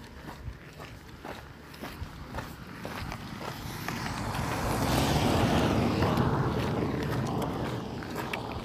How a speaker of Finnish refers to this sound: Oho, tulee auto takaa. Otetaanpa se ohi.